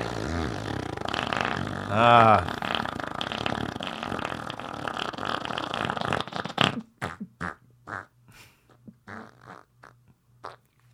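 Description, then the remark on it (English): A voice imitates Jimmy Olsen loudly blowing his nose: a long, blustery rush of air with a brief wavering honk near the start, followed by a scatter of quieter clicks and taps. “Jimmy blows his nose. A rather loud honk.”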